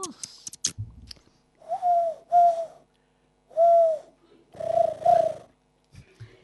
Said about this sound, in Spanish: Ay, ahí está la paloma. Ahí está llamándonos.